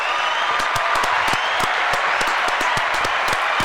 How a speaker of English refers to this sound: Six years sober this March. Round of applause for me, please.